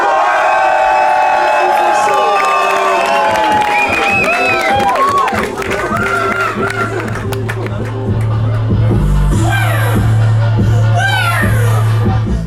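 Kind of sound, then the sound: crowd, crowd cheering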